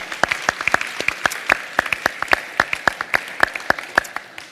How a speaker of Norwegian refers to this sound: Jeg syns vi kan gi de òg en klapp òg, ja, for det er, det er veldig mye bra folk.